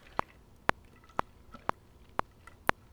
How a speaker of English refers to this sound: I'm going to take a sip of water because my throat is killing me because of sickness.